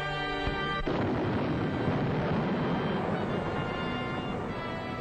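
Artillery cannon fire and explosions merge into a loud, dense, continuous roar as the first guns fire at 5 o'clock on 10 May 1940, opening the German attack on Holland. It starts abruptly after a brief tonal hum and is sustained throughout with no voices.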